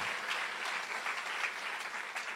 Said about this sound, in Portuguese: Ô, oh, querido, será que você pode aplaudir Jesus?